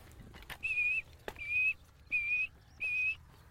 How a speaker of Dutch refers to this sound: Dat, eh, dat puiet, puiet wat je hoort, dat doen die bombekken.